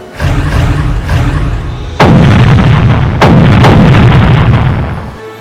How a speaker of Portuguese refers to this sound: Os radares identificaram os U-boats inimigos, dando início ao lançamento de cargas de profundidade. Os alemães contra-atacavam com seus torpedos.